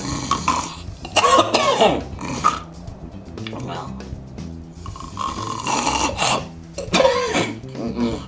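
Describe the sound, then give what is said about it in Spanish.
A voice imitates choking snores up close: several loud, rasping snorts and gurgling gasps in uneven bursts, with a strained, throaty quality between breaths. “Hasta los que se ahogan con sus propios ronquidos.”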